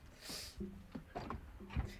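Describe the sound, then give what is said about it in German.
A door opens or closes with a short creaking groan, a scrape and a couple of muffled knocks, fairly quiet, with no one speaking. “Yeah, natürlich die Tür.”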